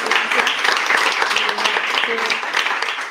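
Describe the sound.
An audience applauds with dense, steady clapping that holds at an even, fairly loud level for about three seconds, with faint murmuring voices underneath, thanking the guest speakers at the end of a talk with questions.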